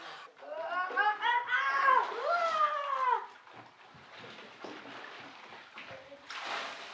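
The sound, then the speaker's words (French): Children shriek and squeal playfully for a few seconds. Then scattered splashes and sloshing water follow at moderate volume as the children run and throw themselves into the water, splashing, gargling, blowing bubbles and diving. “Les enfants coururent et s'y jetèrent à leur tour. Quelle sensation étrange que celle de l'eau.”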